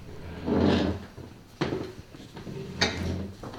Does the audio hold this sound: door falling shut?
yes